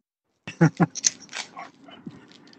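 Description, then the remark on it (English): A dog on a back porch gives two quick, sharp barks, followed by a few softer yips and a brief whimpering tail as the sound fades out. “Out here with the dog.”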